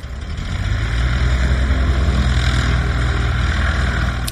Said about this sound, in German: So, und da kommt die Propellermaschine zum Einsatz.